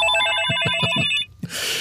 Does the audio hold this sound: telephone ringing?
yes